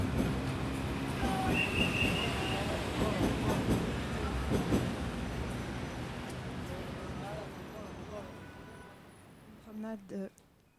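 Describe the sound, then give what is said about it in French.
An elevated metro train rumbles loudly past overhead along Barbès and La Goutte d'Or, a brief metallic wheel squeal rising early on, then the roar gradually fades away, leaving quieter street noise and faint voices. “Une promenade donc euh, sous le métro aérien qui passe euh, le, long de Barbès et la Goutte d'Or.”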